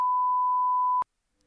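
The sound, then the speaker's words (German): A single steady censor bleep, a pure mid-pitched tone lasting about one second at constant loudness, cutting off abruptly and followed by near silence; it masks the spoken name of a celebrity. “Leute, ihr, ihr, ihr hört es jetzt nur gepiept, aber es ist auf jeden Fall jemand, den ihr alle kennt und ja.”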